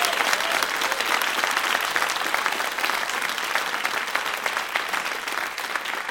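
Sustained audience applause, a dense wash of many hands clapping at steady loudness for about six seconds, with no voices standing out above it.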